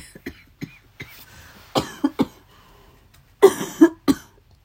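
A person with a cold, a runny nose and a sore throat coughs repeatedly in short, harsh bursts, with a dense cluster of heavier coughs near the end, with no talking.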